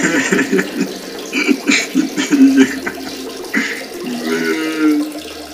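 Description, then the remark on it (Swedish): A steady trickle of a person urinating into toilet water, fairly loud, continuing for several seconds with a faint voice murmuring now and then underneath. “Det var trevligt att träffas, men eh, tyvärr, jag, jag är verkligen pissnödig.”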